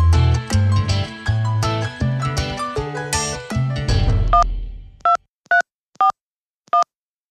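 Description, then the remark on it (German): A phone number being dialed, with a rapid run of electronic keypad tones, followed by four short, evenly spaced two-tone beeps ringing out clearly against silence. No one speaks. “Ja, Telefon raus. Und direkt mal anrufen ist ja quasi so eine Art von Notfall.”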